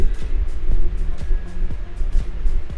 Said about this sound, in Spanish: No, güey, es este, mucho ruido en mi micrófono. Lo que pasa es de que eh, tengo, tengo mi, este, mi ventilador